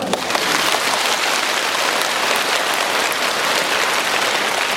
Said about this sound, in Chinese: 那么鼓掌鼓了半天